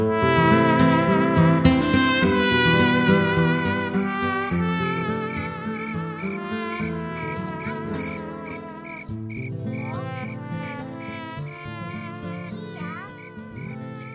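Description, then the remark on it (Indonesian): Crickets chirp at night in a steady, rhythmic stream of high-pitched pulses that continues without pause, layered over a dense, humming tonal background. No one speaks. “Mau ngapain cari jangkrik?”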